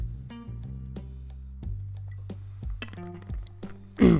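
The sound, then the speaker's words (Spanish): A few light, sharp clinks of a glass, spaced irregularly over a low steady hum, ending in a brief louder rustle as someone drinks water. “Voy a aprovechar para beber agua porque me estoy ahogando.”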